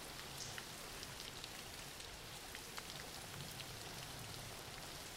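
Steady rain falls throughout, a dense, even hiss with scattered drops pattering on a surface. The sound is soft and constant with no voices or other noises.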